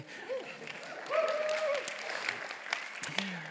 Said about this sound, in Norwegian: Det er lov å klappe og alt.